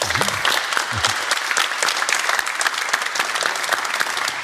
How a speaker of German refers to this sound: Gab es den Applaus jetzt, weil Sie so lange dafür gekämpft haben, weil Sie so gegen, gegen Windmühlenflügel im wahrsten Sinne des Wortes kämpfen?